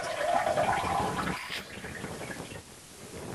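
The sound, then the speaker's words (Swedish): A toilet flushes, a rushing swirl of water that is loudest at the start and then settles into a steady, softer running and trickling as the tank refills. “Jag gick på toaletten, mm.”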